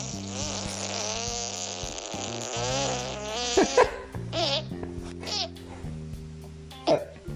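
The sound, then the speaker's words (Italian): A fly buzzes loudly right up against the microphone, a continuous droning hum whose pitch wavers and swoops as it moves, broken by a few brief sharper bursts near the end. “è una mosca, eh.”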